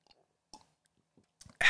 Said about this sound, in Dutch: Sorry, ik moet even een slokje nemen.